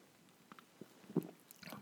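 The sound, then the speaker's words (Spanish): A quiet sip of Dope Content beer, taken as a toast to the start of the year: a few soft wet mouth and swallowing noises, with a slightly louder gulp near the middle. Nobody speaks. “no podía dejar pasar esta cerveza solo por el nombre. Y bueno, salud por un inicio de año. Doy el trago.”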